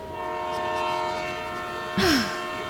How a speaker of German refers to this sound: Und der Zug fährt an und setzt sich in Bewegung und nimmt Fahrt auf und ihr entfernt euch vom Bahnhof.